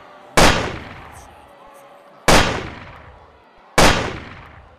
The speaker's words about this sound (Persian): صدای سه شلیک مرگبار فضا رو پر میکنه اولین گلوله به پشت کندی میخوره گلوله دوم جمجمه کندی رو میترکونه و سومین گلوله هم نصیب جان کانلی میشه